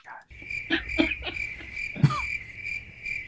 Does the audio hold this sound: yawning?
no